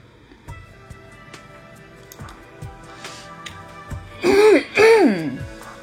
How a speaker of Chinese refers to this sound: 今天怎么咳嗽？老是有痰啊！